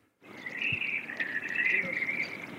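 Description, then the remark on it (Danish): A Eurasian blackbird sings outdoors in the morning, heard on the way to work, a steady run of bright, warbling phrases with no pauses, moderately loud, over a soft background hiss. “Men jeg kunne bare ikke høre, lytte til andet end solsort hele vejen ind.”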